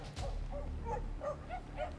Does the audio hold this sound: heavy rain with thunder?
no